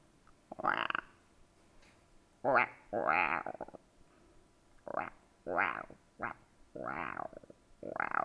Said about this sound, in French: On entendait les grenouilles.